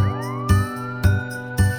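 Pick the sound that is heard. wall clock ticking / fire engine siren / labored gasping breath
fire engine siren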